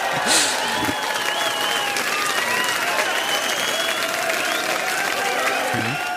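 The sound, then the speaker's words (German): Loud, sustained applause from a large crowd, played in as a recording, fills the whole stretch, a dense continuous roar of clapping with some whistles and cheers mixed in, holding steady from start to finish. “Äh, das heißt, ich, ich, werde jetzt an dieser Stelle meinen donnernden Applaus einfach einspielen.”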